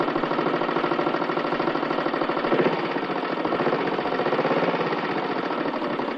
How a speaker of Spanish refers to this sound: Más tarde, Miguel circula en la motocicleta a gran velocidad acompañado de Andrés.